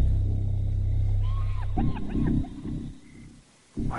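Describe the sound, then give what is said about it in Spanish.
An animal howls at night under a full moon in a few short, wavering tones that rise and fall, heard over a steady low rumble that drops away before a final burst of noise. “He oído un aullido.”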